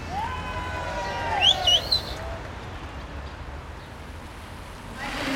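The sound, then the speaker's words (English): Heavy rain pours down in a steady, dense hiss that fills the whole scene, while a few short bird chirps cut through briefly near the start. “Uh, it's pouring down, it's absolutely bucketing down.”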